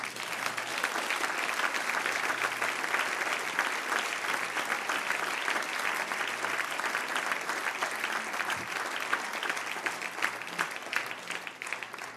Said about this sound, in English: Give the Lord a hand clap of praise.